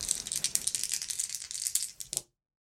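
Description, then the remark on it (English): An action die and two challenge dice are rolled in a tabletop game to enter a fight, rattling and clattering for a couple of seconds in a rapid, bright jumble of clicks, ending with a few last sharp knocks before falling silent. No one speaks. “So we're going to roll plus two on this to enter the fray, see how the fight starts.”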